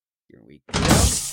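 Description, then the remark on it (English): A brief murmured voice, then a one-way door briefly unlocked by a button press with a sudden loud thunk that flows into a sustained, hissing mechanical rush lasting most of a second, prominent. “Uh let me just press this button to briefly unlock the one-way door.”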